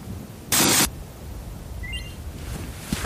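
A single sharp mechanical clack of an SLR camera shutter closing after a 30-second long exposure, brief, standing out against a steady outdoor hiss with nobody speaking.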